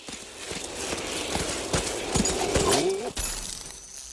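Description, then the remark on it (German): Reindeer hooves clatter in quick, irregular steps, joined near the end by a short throaty, tonal call, all over a steady hissing background with no talking. “Macht's gut und weihnachtlicher kann man, glaube ich, nicht aufhören als mit dem informativen Sound von Rentieren.”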